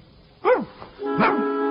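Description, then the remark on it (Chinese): A dog gives two short, throaty barks about a second apart, the second one over a steady droning tone that lingers after it. No one speaks. “好了，金狗，送他回家吧。银狗、铜狗，你们俩也回家吧。”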